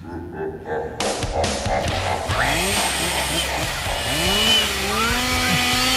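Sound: chainsaw running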